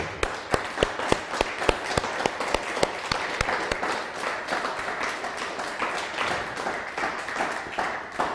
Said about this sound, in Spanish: Un fuerte aplauso.